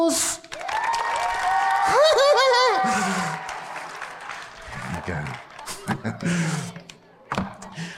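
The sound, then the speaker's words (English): An audience bursts into steady applause with loud, rising whoops and cheers for the first few seconds, then the clapping thins out into scattered claps and a few thumps. “About giving me a round of applause.”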